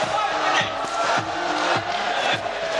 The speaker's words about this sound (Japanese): ただいまオープンステージのバックステージにいて 演技が始まるのを待機していますこちらからは全く何も見えませんがステージのオーディエンス席の方からは盛り上がっている声が聞こえます